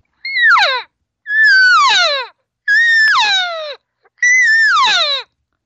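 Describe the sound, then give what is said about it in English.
A person imitates an elk cow's regathering call, a come-on-back-over-here sound: four loud, drawn-out nasal mews, each sliding downward in pitch, separated by brief pauses. “And that's when I started hearing them make, and I call it the regathering sound.”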